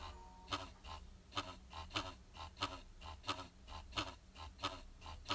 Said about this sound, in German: Falls ihr das hört, das ist mein Controller, der vibriert. Das ist so laut.